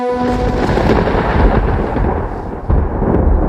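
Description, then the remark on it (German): A loud, sustained rumble of thunder rolls continuously with deep low-end roar and crackling texture, swelling slightly midway and surging again near the end, with no voices present. “Nächstes Bild, Donner.”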